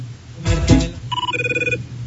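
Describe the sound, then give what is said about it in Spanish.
The CTU office phone ringtone, the sound of the phones in Jack Bauer's office, used as a mobile ringtone: a brief noisy burst, then a warbling, rapidly pulsing two-tone trill that chirps steadily for under a second, clear with no one talking. “Es el teléfono de la CTU.”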